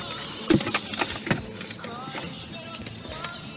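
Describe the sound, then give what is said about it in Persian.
Keys jangle in a couple of short metallic bursts near the start, followed by quieter clinks and faint handling rustle. “همون کلید”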